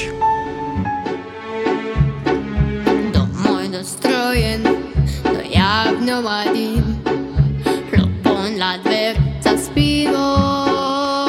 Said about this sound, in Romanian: iar ceea ce ați auzit e un fragment dintr-un cântec în limba rusă pe care l-a învățat fonetic. Băiatul nu știe limbi străine